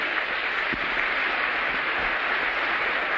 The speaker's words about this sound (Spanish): ¿Por qué no se dan un aplauso?